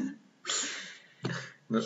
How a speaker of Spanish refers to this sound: Es un hipo. Qué horror, por favor, así todo el maldito fin de semana, no puedo más.